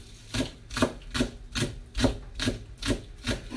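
A wooden spatula scrapes repeatedly across a frying pan to remove oil before washing, in a steady back-and-forth rhythm, about eight rasping strokes with a dry, woody scratch, no voices.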